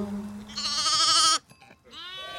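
A goat, held with one hand on its horns and one on its rump, bleats loudly twice: a long, quavering, wavering cry followed after a short pause by a second bleat that gets cut off. No one speaks.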